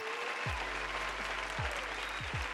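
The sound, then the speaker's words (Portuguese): A dense, steady burst of crowd applause for the game Plague Inc. fills the whole clip, with a few deep booming thumps dropping in pitch underneath it. No one speaks. “Aplausos.”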